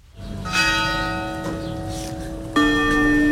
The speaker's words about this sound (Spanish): Las campanas de la parroquia de Nuestra Señora de la Victoria, ese era el único sonido antes de que los féretros subieran la escalinata de la iglesia, porque aunque la plaza estaba completamente llena, el silencio era absoluto.